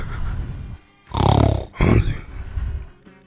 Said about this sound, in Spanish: Ahí está roncando.